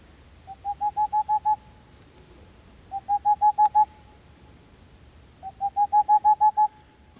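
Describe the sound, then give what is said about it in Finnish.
A recording of an owl's rhythmic spring hooting call: three bursts of rapid, evenly spaced hollow hoots, six to eight notes each, clear against a quiet outdoor background. “Mutta keväällä se pitää semmoista hauskaa ääntä. Puputtaa.”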